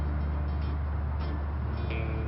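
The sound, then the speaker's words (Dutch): A steady, low rumbling wash of distant motorway traffic, thought to be the E40, continuous and even in level, with faint swells as vehicles pass far off; no voices are heard. “Ik denk dat dat een E40 is.”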